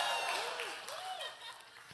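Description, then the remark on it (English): An audience, invited as 49ers fans to cheer, cheers and applauds, a dense wash of clapping with a couple of rising-and-falling whoops over it, steady at first and easing off slightly toward the end. “Irrelevant literally turn the NFL upside down, and all you 49ers fans can go ahead and cheer right now, right?”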